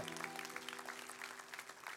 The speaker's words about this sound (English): Amen. That's worthy of a hand clap. Hallelujah.